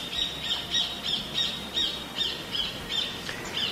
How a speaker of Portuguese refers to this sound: Mas acho que não é Caturrita, não. Não, né? esse não, né? Eu queria aquele outro. Que pássaro é aquele?